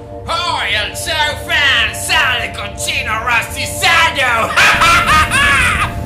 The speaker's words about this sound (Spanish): Salió de su escondite y gritó a los cuatro vientos.